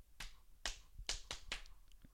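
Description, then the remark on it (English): Five sharp hand claps from a crowd chant ring out in a loose, uneven rhythm, crisp, with a quiet low rumble between them and no voices. “Joining a few chants and claps.”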